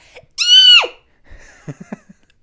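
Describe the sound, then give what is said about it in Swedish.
A person gives a short, shrill, toned-down (about 10%) imitation of a stereotypical woman's distressed scream they had let out in the house, held for about half a second before its pitch drops away, followed by a few soft murmurs and clicks. “Och samtidigt det där mest stereotypa skriket så här. Från en kvinna, kvinna i nöd.”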